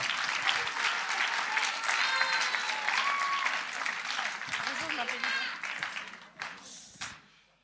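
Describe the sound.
Steady applause from an audience, dense overlapping claps with a few cheers and voices mixed in, holding loud for several seconds before tapering off at the end.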